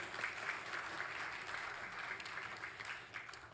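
Steady audience applause congratulating a couple celebrating their 58th wedding anniversary, a dense wash of many hands clapping at a sustained, fairly loud level throughout, with no voices standing out.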